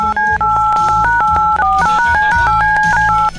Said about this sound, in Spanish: Muy bien, ah, eh, tomo el teléfono. Empiezo a marcar en este momento.